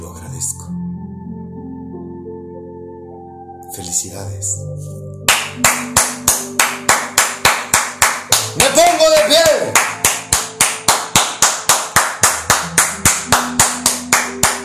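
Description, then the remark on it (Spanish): Loud, steady rhythmic clapping begins partway through and continues at an even beat over soft background music, with a voice speaking briefly early on and again midway. “Aplausos para ti porque tomar su mano, querer conocerlo, no cualquiera lo hace.”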